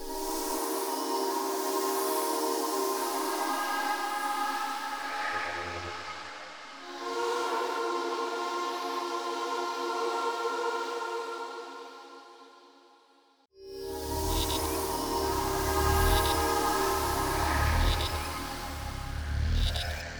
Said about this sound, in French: Alors sur cette pièce, la chorale est faite euh, uniquement avec des sons de, moustiques, euh, de maringouins en fait, et euh, le son de bass qui embarque vient d'une prise de son d'une abeille.